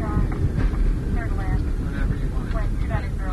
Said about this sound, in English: There was the slightest bump as we touched down. The engines roared as the captain put them into reverse thrust. The giant plane began to slow.